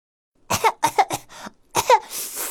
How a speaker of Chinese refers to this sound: 哎呦，喷火龙的喉咙被辣得不停的咳嗽。